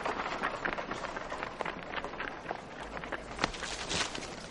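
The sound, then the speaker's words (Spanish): Quick, light footsteps of a boy running across a hard surface, a rapid irregular patter over a busy background of street noise, with no one speaking. “El niño sigue corriendo.”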